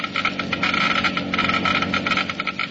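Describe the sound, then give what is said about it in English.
A Geiger counter clicks rapidly and continuously, measuring engine wear in a motor oil test, a dense, loud crackle of fast irregular ticks filling the whole stretch with no voices. “You have just heard Geiger counters clicking off the scientific proof that new RPM motor oil is years ahead.”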